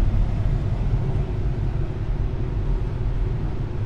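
Steady low rumble inside a moving car at the end of November 2017, a continuous engine and road drone that stays even and fairly loud throughout, with no voices.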